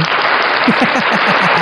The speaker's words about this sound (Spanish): Y vamos a despedirnos eh, con aplausos.